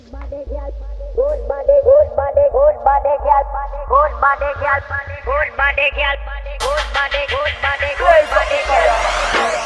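A song plays: a sliding sung vocal melody over a steady, heavy bass line, then a burst of bright percussion about two-thirds through fills out the louder full-band sound.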